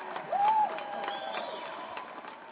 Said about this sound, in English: And shout out to the, to the country of Kenya. To, can we give some hand claps to Kenya?